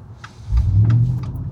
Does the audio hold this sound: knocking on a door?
no